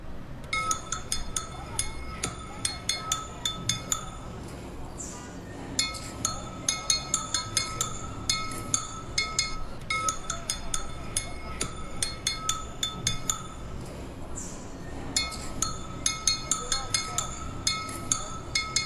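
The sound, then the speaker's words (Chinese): An elderly maltose candy seller holds a thick iron plate in his left hand and taps it with a small hammer-like tool in his right, making quick, rhythmic bursts of bright, ringing metallic clinks, pausing briefly between runs, over a low murmur of background voices. “只见一位爷爷左手拿着一个厚厚的铁片，右手拿着一个像小锤子一样的东西，叮叮当当的敲着，超好听。”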